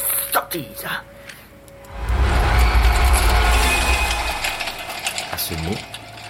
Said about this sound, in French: le spectre poussa un cri effrayant et secoua sa chaîne avec un bruit si lugubre et si épouvantable que Scrooge se cramponna à sa chaise pour s'empêcher de tomber en défaillance.